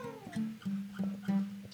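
A cat meows several times in quick succession, a string of short, evenly spaced, whiny cries at moderate loudness, with no talking over them.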